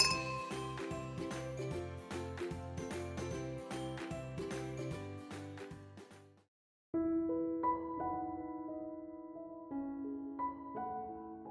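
Bright glass clinks of a toast ring out after a short musical intro with a steady beat, each chime sustaining a clear high tone and fading, with a few more struck later at an uneven pace.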